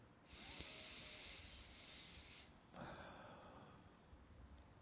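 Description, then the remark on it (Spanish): A slow, deep breath taken during a guided practice: a long airy inhale lasting a couple of seconds, then a brief pause and a softer, breathy exhale, quiet with no talking. “tomando ahora una respiración profunda.”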